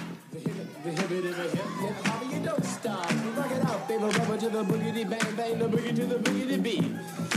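An early hip-hop record plays loudly and steadily, a busy mix of overlapping party voices and chatter riding over sharp, regular percussive hits for the whole stretch.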